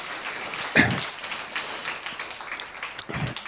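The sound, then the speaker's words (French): An audience at a church service applauds the three people about to present free texts, a dense, steady patter of many hands clapping for several seconds, with a couple of brief louder swells and no one speaking over it. “Donc on peut déjà les applaudir d'entrée parce que ça va être magnifique.”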